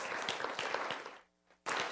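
A church audience applauds members who serve there, a dense, loud wash of many clapping hands. It briefly drops away to near silence with a soft sustained tone, then the clapping surges back.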